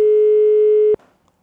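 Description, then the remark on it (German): A single loud, steady ringback tone of an outgoing phone call sounds for about a second, then cuts off abruptly into near silence. No one speaks. “Und ähm, in der Zwischenzeit können wir mit ihm telefonieren.”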